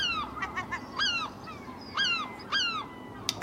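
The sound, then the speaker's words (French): Six seagulls circling overhead call in a run of harsh, falling cries repeated every second or so, fairly loud against a low background rumble, with no voices. “Six mouettes tournent autour de là où était Camille juste avant.”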